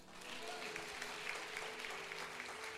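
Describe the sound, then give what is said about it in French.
An audience applauding steadily to acclaim God for a woman's life, a dense wash of many hands clapping at once, sustained for a few seconds with no break in the noise. “Acclame Dieu pour sa vie.”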